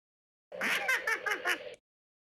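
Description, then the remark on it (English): A Yoda laugh sound effect from Star Wars, a quick run of about five bouncy, voiced chuckles lasting just over a second, heard alone against silence. “It is labeled the Yoda laugh sound yeah, effect.”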